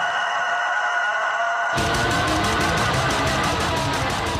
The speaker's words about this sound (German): Ja, da bin ich direkt wieder bei unserem äh, Black Metal Hahn da. bei, bei, diesem Kikiriki. Den hier? Der, warte kurz. Ja, bei dem.